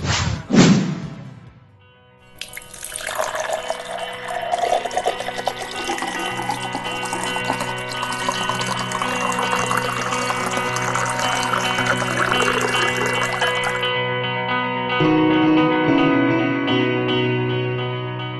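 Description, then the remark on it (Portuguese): A brief knock or clink, then water pours steadily into a glass for about ten seconds, fairly loud, followed by a softer trickle. No one speaks. “Uma tarefa simples, como pegar um copo de água, envolve a interação de milhões de elétrons da nossa mão com outros milhões na superfície do vidro.”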